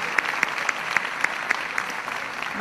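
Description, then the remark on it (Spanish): A church audience applauds steadily for God and Jesus, a dense wash of many clapping hands with sharper accents landing in a regular beat about four times a second, as if some people clap in rhythm. “Y si te animas le damos una vez más un fuerte aplauso a nuestro Dios, a nuestro Jesús.”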